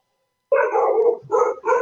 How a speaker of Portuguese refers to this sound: Ah, o cachorro.